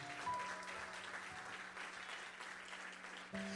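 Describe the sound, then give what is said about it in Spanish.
An audience applauds for the Lord with dense, steady clapping that holds at an even loudness for several seconds, with a faint sustained low tone humming beneath it. “Vamos, un mejor, usted puede darle un mejor aplauso al Señor.”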